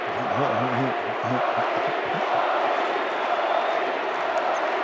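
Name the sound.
arena crowd chanting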